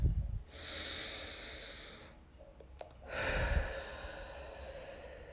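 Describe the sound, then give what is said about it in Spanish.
A slow, deep final breath during a meditation, drawn in for about two seconds, a brief pause, then a long, airy exhale, with no talking. “Tomamos una última respiración.”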